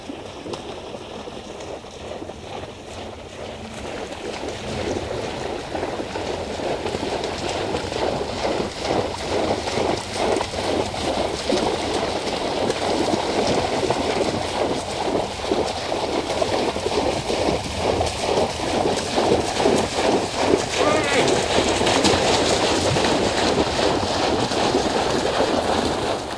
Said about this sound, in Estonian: nii et näha võib omalaadset protsessiooni, kui neli-viis põtra üksteisele järgnevad. kuulame lindistust, kus põdrad üksteise järel vees solistades jooksevad. üks põtradest teeb vahepeal ka häält